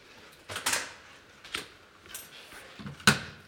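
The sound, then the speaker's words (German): A door to a basement storeroom of Christmas props being opened: a rattling handle and latch, a few soft knocks and shuffles, then a sharp metallic click near the end. No one speaks. “Öffnet sich die Tür.”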